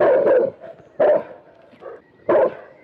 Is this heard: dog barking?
yes